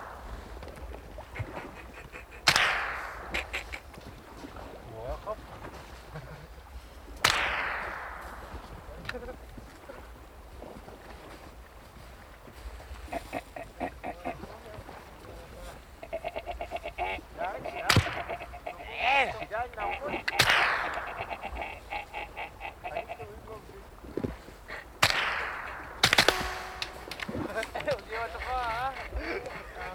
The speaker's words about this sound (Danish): Lige så utidig begynder hans storebror Pavia og Arens lillebror at skyde til måls efter stormfuglene med deres salonrifler. Indimellem rammer de en.